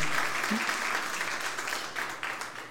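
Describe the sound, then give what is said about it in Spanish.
An audience applauds the Lord with dense, steady clapping that fills the whole stretch, a continuous crackling wash of many hands without any clear pauses. “Un aplauso al Señor.”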